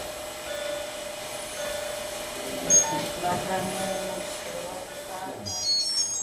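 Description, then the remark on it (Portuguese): Intensive care unit ambience on floor 6 of the Hospital de Abrantes, a ward of 18 beds with 17 Covid-19 patients in acute respiratory failure: a steady electronic hum with thin tonal beeps from machines, faint murmuring voices and brief clatters in the background, continuous throughout. “Este é o som da medicina intensiva e cada vez mais intensa no piso 6 do Hospital de Abrantes.”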